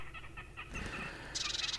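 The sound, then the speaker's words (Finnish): A red-necked grebe calls loudly: a few short rhythmic notes lead into a harsh, bull-like bellowing wail, which ends in a rapid, high-pitched chattering trill. “Härkälintu on nimetty härkämäisen mylvinnän mukaan.”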